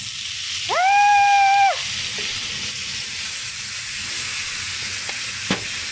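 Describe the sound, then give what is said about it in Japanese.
Soy sauce is poured onto a hot skillet of oysters and mountain yam cooked in butter and sizzles, a steady, crackling hiss that runs the whole time without talk, joined early on by a brief, high whistling tone and later by a couple of faint clicks. “最後に、これです。お醤油。もう、いきますよ。こ音、音、音聞いて、音。”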